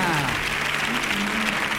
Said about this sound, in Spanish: Qué Bien, fuerte el aplauso ahí para la super radionovela venezolana.